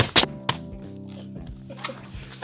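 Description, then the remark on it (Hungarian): A few sharp plastic clicks and clacks of bottle caps being handled and dropped, moderately loud, with a steady low hum underneath and faint rustling afterward. “Igen meghallgathatjátok, hogy milyen hangja van egy kupaknak.”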